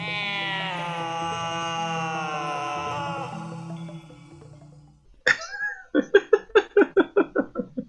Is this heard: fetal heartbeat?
no